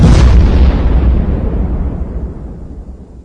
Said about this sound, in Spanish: Pero será posible otra vez una explosión, carejo. Mire cómo los pusimos, casi nos quemamos todos. Pero ¿qué pasa? Esto se fue la mano con el magnesio, paisano.